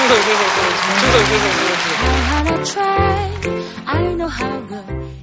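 A crowd bursts into loud, sustained applause to send off a man leaving for military service, lasting a couple of seconds, then the clapping thins out as music with a steady bass line takes over.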